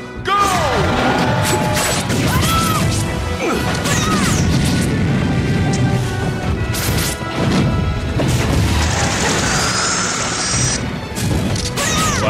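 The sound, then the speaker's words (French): Sound effects from a fighting video game on the Wii: a loud, dense barrage of smashing impacts, thwacks and swooshes with rising and falling electronic tones, continuous for the whole stretch. “Alors, c'est Super Smash Bros Brawl sur Wii.”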